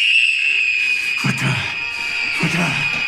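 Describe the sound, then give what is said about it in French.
A voice imitates a small, piercing high-pitched scream, held steady for about three seconds, with two brief breathy bursts underneath partway through. Fairly loud. “Quand qu'elle voit sa mère, tu sais, elle se met à crier, un petit cri bien aigu.”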